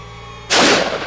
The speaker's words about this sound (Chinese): 再一声枪响传来，但听上去，他只击中了空气。